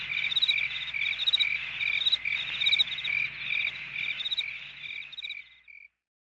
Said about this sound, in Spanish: Grillos. Los grillos cantan cuando es de noche. Grillos.